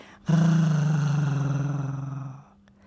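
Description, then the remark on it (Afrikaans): A dog's deep, rumbling growl holds steady for about two seconds, loud and close, its pitch sagging slightly before it cuts off, with nothing else around it. “Sis hond weer deur sy tande verplaas Japie.”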